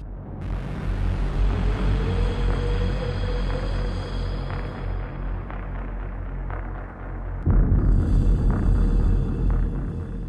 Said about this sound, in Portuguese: Então, o tema dele é uma junção dessa respiração com uma nota descendente bem forte aqui. E essa respiração que a gente escuta é do próprio Nolan. É o Nolan ali respirando.